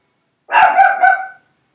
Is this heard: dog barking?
yes